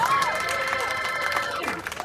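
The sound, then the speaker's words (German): A large crowd cheers and claps steadily for a huge man in swim trunks appearing from behind a curtain, with whoops and shouted voices rising over a dense wash of applause, loud throughout. “Applaus, Applaus”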